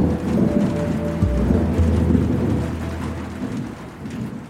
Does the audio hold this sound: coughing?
no